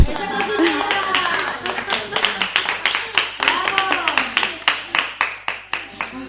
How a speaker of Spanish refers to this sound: Bueno. estamos aplaudiendo a la cocinera. Estamos aplaudiendo la cocinera.